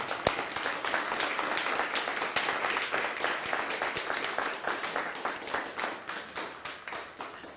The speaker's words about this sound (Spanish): Un fuerte aplauso al Eterno.